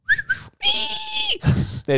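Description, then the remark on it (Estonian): A voice imitates the R2-D2-like beeping whistles of a small delivery robot stuck in snow: two quick high chirps, a long steady warbling tone that slides down, a breathy burst, then a short rising chirp. “ja siis on lihtsalt lumes kinni ja siis teevad R2D2 häält”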